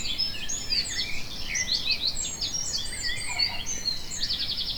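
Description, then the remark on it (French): Many birds sing and chirp at once in a dense, overlapping chorus of high whistles and trills, steady throughout with no voices, set against a soft outdoor background hum. “Les oiseaux chantent partout, dans les villes et les campagnes.”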